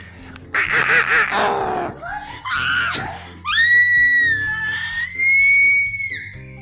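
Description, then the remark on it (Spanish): Several voices in a group activity take turns screaming one after another: a harsh, raspy yell, two short shrieks, then long, high-pitched wavering screams. They are loud, with a brief pause between turns. “después de esta divertida ronda de gritos, vamos a despedirnos”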